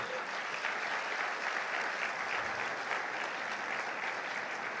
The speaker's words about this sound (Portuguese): Pode aplaudir.